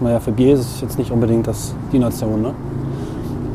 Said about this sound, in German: Man hört jetzt ein bisschen im Hintergrund, dass links und rechts die Straße ist, ne? vielleicht ein bisschen. Mhm. Ja, Aber es ist sehr gedämpft und angenehm eigentlich.